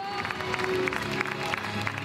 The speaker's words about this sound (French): Le grand soir des candidats un à un ovationnés par la foule